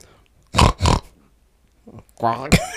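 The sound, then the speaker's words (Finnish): A person imitates a pig, making two quick, snorting oinks, then a longer voiced, grunting squeal after a short pause. “Koiran lelu oli pihalla ja kaikki ovet olivat kiinni sitten kuului possukana, ääni.”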